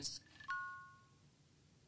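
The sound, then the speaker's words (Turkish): A soft electronic chime from a smartwatch after its digital crown is pressed, following haptic feedback: two clear bright tones ringing out together briefly and fading smoothly, heard alone and fairly quiet after a faint click. “Feedback'in ardından bir de ses aldık.”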